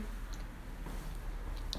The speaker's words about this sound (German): Ich bin jetzt drin. Ich muss den Schlüssel jetzt erstmal noch zur Seite legen. Ich brauche dafür nämlich einen Schlüssel.